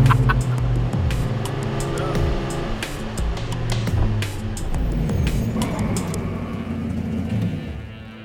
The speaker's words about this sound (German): weil sie in den Kurven oder im Tunnel aufs Gaspedal drücken und den Motor aufhüllt